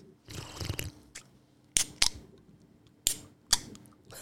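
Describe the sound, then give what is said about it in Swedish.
Drink cans being opened: a stretch of rustling, then four sharp metallic snaps with brief fizzy hisses, arriving in two close pairs. No one speaks. “Ja, jag tänkte säga det, annars kommer de sitta där på jobbet så kommer de säga har de inte öppnat en dricka än?”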